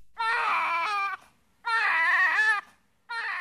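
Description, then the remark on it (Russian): A newborn baby cries loudly in three wailing bursts, each about a second long with brief pauses for breath between them. “Вскоре у Адама и Евы родился первенец.”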